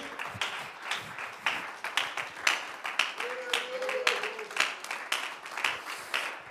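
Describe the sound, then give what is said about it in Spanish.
A large church audience claps steadily throughout, applauding God, a dense wash of overlapping applause with voices calling out and a brief sustained shout rising above it midway. “Yo quiero impedirle que le dé el aplauso más lindo que le ha dado a Dios en este día.”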